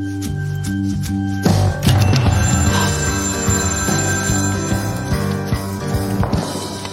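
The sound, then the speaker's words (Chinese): A writer's telephone rings for the second time with a bright, metallic bell trill that repeats steadily and loudly for several seconds, layered over sustained low tones, with no voices. “作家打出电话又响了这几个字，结果自己的电话第二次响了。”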